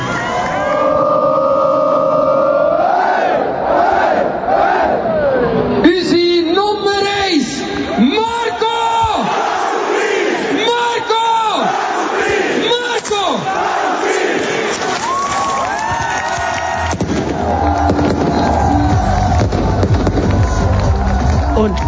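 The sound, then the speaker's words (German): A large crowd on the Bundesplatz cheers loudly and sings together as the players are presented, rising chants and whoops swelling over a constant roar of voices, with a sharp burst of noise near the end. “Sie haben auf dem Bundesplatz die Spiele vorgestellt und dann sind die Spiele vorgekommen, haben gejubelt und gesungen und gemacht.”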